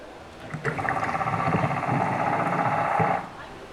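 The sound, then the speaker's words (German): A recording played for visitors: a rapid, buzzing train of pulses from an underwater cusk eel runs steadily for about two and a half seconds, fairly loud against a low, murky water background. “So this is a cusk eel.”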